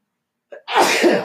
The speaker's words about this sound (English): Sneeze. Sorry about that.